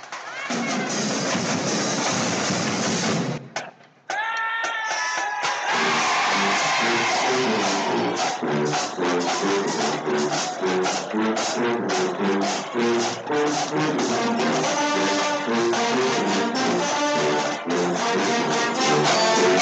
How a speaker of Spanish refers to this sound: Vamos a poner Marching Band a ver si sale con alguna.